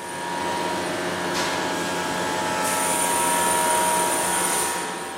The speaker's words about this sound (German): Kompressoren füllen die riesige Halle mit ohrenbetäubendem Lärm.